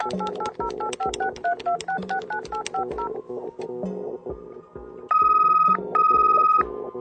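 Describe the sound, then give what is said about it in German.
A rapid run of telephone keypad dialing tones for a call between Berlin and Moscow, short beeping pairs in quick succession, followed by two longer, louder steady tones like a ringback signal, clear with no speech. “Und im Jahr 2010 könnte dann zwischen Berlin und Moskau das folgende Telefonat geführt werden.”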